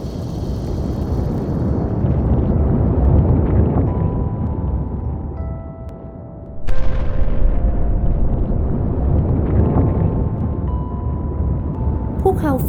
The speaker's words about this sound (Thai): ที่สุดท้ายแล้วภูเขาไฟเล็ก ยอมระเบิดและเติบโตเสียที